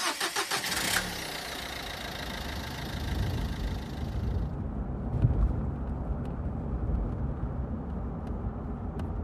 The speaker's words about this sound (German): Er rannte zum Wagen seines Vaters, sprang auf den Beifahrersitz, legte den Rucksack in den Fußraum und schlug die Tür zu. Sofort setzte sich der SUV in Bewegung.